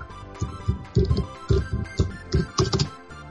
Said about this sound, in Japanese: カタカタ、タイプは聞こえるけど、今さっき。